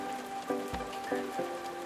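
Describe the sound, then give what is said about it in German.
Steady summer rain patters and splashes on steaming asphalt in northern Hamburg, Germany, with a few louder drops landing over a soft, continuous hiss and a faint tonal hum underneath. “der Regen ein, der im Sommer auf den dampfenden Asphalt plätschert und diesen unvergleichlichen Geruch, der dabei entsteht.”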